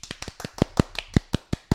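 A short burst of applause welcoming a show's first special guest: about a dozen crisp, separate handclaps in a quick, steady rhythm, sounding like just a few hands rather than a large crowd, with no voices.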